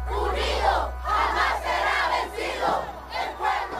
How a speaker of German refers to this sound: Die Anhänger von Ortega feiern den Wahlsieg, sie jubeln auf der Straße und dann tritt Ortega vor die Medien.